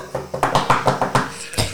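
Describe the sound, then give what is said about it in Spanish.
A quick run of about eight sharp taps on a hard surface mimics someone knocking at a door, steady at first and then pausing before a final knock, with no talking. “Se queda dormida raja entre que la tristeza, el, el rush de azúcar, la hueá de las papitas, el copete, y empieza a sonar la, puerta.”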